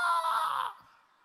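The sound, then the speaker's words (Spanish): A single voice lets out a loud, high-pitched imitation of a roller coaster rider's scream, like on the roller coasters in Orlando, held for under a second before trailing off into a faint fading tail. “Usted ve como en, los roller coasters de, de, de Orlando, cuando uno hace, usted se va a sí mismo con un grito, aleluya.”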